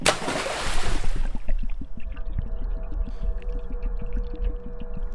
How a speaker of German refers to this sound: Und da würde ich dann gerne abtauchen. Also springe ich wieder ins Wasser.